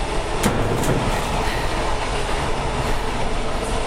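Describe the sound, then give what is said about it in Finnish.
Freight train wagons, including covered-roof box wagons and an empty steel-coil wagon, roll steadily along the rails under gloomy skies after a rain shower, in a loud, continuous rumble, with a couple of sharp metallic clicks early on and no voices. “Kolmen kuperakattoisen laatikkovaunun jälkeen hyppään tyhjään teräskellä vaunuun.”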